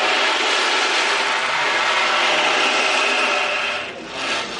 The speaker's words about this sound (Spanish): Hay un instrumento mágico, muy, muy chamánico también, que es el tambor oceánico. Esto es, en vez de tener el mar fuera, esto es manejar uno su propio mar.